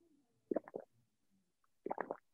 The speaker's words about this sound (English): I use a microphone, so the gulps are really loud. Yeah, I could um, hear it there as well. It was a proper gulpy yeah. noise. I loved it good gulpy gulp. Good gulpy and, gulpers.